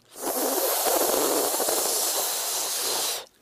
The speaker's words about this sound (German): man gibt die Zungenunterseite an die Schneidezähne und dann atmet man ein durch die Seiten des Mundes, also könnte auch sagen, man rollt die Zunge quer. Also Zungenunterseite an die Schneidezähne und dann seitlich einatmen, einen zischenden Klang.